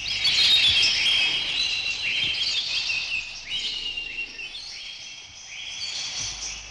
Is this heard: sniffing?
no